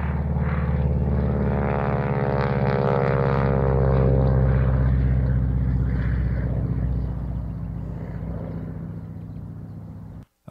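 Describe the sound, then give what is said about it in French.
A propeller airplane drones overhead, its steady engine hum loud with shifting harmonic tones as it banks and turns, then gradually fading away. “Déjà la nature, bruit de voiture, et ensuite un avion qui passe au-dessus de vous et qui tourne.”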